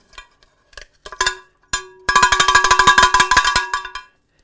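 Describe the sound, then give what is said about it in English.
A cowbell from Junction Bell with the STS logo imprinted on its side is rung loudly. It starts with a few scattered clanks, then a fast, steady burst of around twenty bright metallic hits over a sustained ringing tone. No one speaks. “Um, shout out to our friends at Junction Bell who sent me that last year with the STS logo imprinted on the side of it.”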